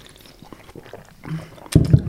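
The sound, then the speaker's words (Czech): Cheap cola being poured: a brief, soft gurgle of liquid that swells into a louder splashing pour near the end, with no talking. “Taková ta levná kola. No ale nemá to bublinky.”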